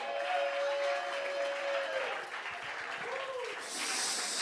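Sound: audience applause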